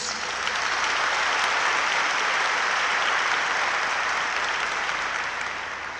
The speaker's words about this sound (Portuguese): Você pode dar um salve de palmas para Jesus?